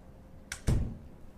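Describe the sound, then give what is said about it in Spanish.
A door slams shut as someone leaves the room: a quick latch click followed by a heavy, booming thud that rings briefly before fading into quiet room noise. “El golpe de una puerta al cerrarse me distrajo, y alzando la vista vi que mi prima había salido del aposento.”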